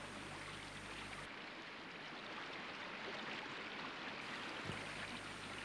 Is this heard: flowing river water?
yes